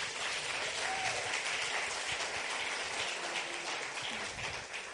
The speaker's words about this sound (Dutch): Dus laten even een applaus geven voor Bart en Katja.